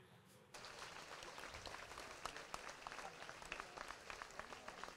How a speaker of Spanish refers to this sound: Y así, con este aplauso, termina la primera jornada.